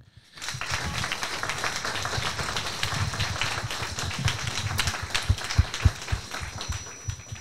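A burst of audience applause starts abruptly and holds steady for several seconds, a dense wash of many hands clapping with a few sharper claps standing out near the end.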